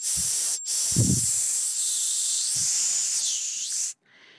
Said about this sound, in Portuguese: É um médio médio agudo já bem bem agressivo. Vamos ouvir aí 5 kHz, 6 e 7 kHz